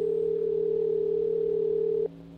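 A steady telephone tone hums loud for about two seconds as a call is placed to the Arkansas State Police, then cuts off abruptly, leaving a quieter line hiss.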